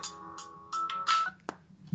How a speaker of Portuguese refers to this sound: Ih, telefone.